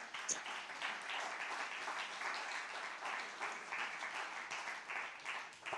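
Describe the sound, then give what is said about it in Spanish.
A large crowd applauds God during a religious gathering, a dense, continuous wash of many hands clapping at once, sustained at an even level for several seconds without anyone speaking over it. “Denle un aplauso gigante a Dios.”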